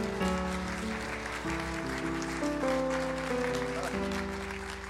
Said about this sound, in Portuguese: Dê uma salva de palmas para o Senhor Jesus.